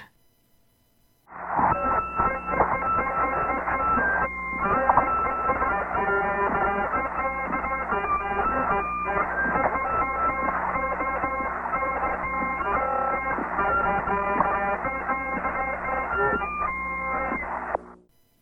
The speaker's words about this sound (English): they proceeded with their rendition of Jingle Bells. A syndicated UPI report at the time stated, quote, it sounded a bit like a badly managed bagpipe. Well, I'll let you be the judge of that.